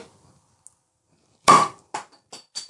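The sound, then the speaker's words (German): A sharp, loud pop as a bottle cap, previously opened and pushed back on, is levered off again and flies off, followed by a few lighter metallic clinks, likely the cap landing and rattling, with no voices. “ich hab den Deckel zwar wieder draufgesteckt und äh, ich hebel das jetzt wieder auf”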